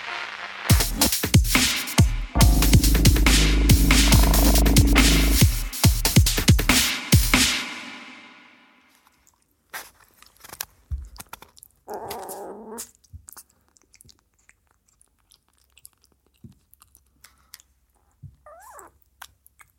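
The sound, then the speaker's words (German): Six-week-old kittens hiss and spit in loud, noisy bursts for several seconds, then fainter scattered hisses and small rustles follow with quiet gaps between them. No one speaks. “So klingt das übrigens, wenn so sechs Wochen alte Katzen fauchen.”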